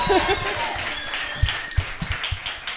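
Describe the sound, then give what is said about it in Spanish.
Audience applause, a dense steady patter of many hands clapping, with a few sharper, louder claps standing out toward the end and faint voices mixed in at the start. “¿Mi aplauso qué?”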